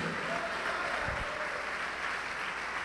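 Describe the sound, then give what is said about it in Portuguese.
An audience applauds in the name of Jesus in a steady, dense wash of clapping that holds at an even level for the whole stretch, with no voices standing out. “Vamos aplaudir ao nome de Jesus, olha quanta gente chegando.”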